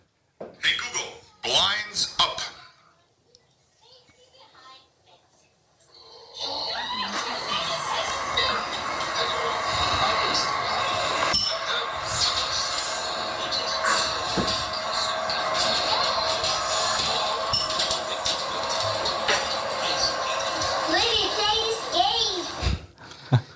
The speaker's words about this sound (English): So you heard here my my house, my busy house at eight in the morning with three kids and getting ready for for school.